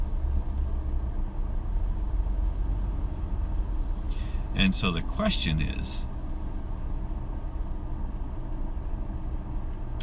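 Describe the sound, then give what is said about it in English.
A steady low engine rumble of a car idling while stuck in traffic hums through the whole recording, with a man's voice speaking briefly over it near the middle. “um, sorry, I'm kind of stuck in traffic.”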